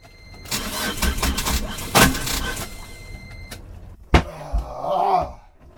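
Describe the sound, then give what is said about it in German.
A boat engine's starter cranks with a rough, whirring grind for a few seconds, then cuts out. A sharp clunk follows, and a brief wavering whine trails off at the end without the engine catching. “Also der, der Starter wollte immer noch nicht so recht und dann kam ich irgendwie auf die Idee, ich schließe die Kiste jetzt kurz.”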